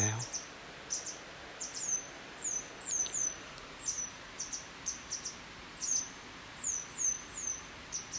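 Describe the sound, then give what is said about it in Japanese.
A parent bird, guarding its hidden chick, gives repeated sharp alarm calls, short high chirps coming in quick bursts roughly every half second, clear over a faint background hiss. “でももう今もう親鳥が今警戒してますね”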